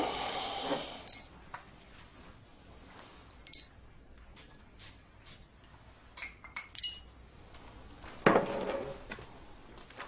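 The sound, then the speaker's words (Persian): Scattered glassy clinks and small tinkling impacts of the shards of a glass perfume bottle, dropped from someone's hand and broken, being gathered up, with a louder crunchy clatter near the end; no talking. “شیشه عطرت بود برو خودم جمعش میکنم دستم خود افتاد”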